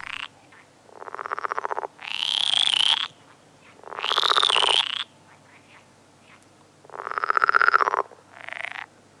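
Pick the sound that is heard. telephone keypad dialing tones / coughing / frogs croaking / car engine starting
frogs croaking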